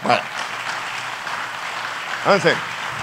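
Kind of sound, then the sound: crowd, audience applauding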